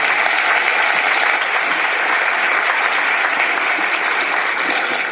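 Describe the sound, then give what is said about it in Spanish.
Steady, sustained applause from an audience welcoming a speaker to the stage on a cold morning, a dense wash of many hands clapping at an even loudness for the full five seconds with no voices standing out. “Con un fuerte aplauso le, recibimos.”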